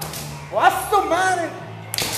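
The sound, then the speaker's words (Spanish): A person laughs and exclaims, then a single sharp, loud crack of a leather whip snaps near the end, sudden and bright over a faint low hum. “Cuando sacas el latigazo trae una ah, parte todavía este, adicional, que es como un segundo golpecillo.”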